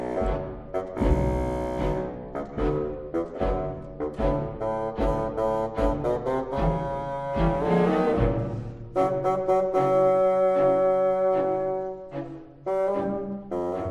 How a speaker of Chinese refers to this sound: 而老爷爷则是由低沉的低音号来表现，听听看像不像？